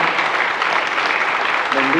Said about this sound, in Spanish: Dar un aplauso fuerte al Señor, mi hermano, porque lo merece.